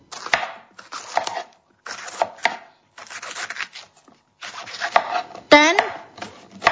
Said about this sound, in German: tut mir doch äh, noch Peperoni schneiden. In kleine Würfel.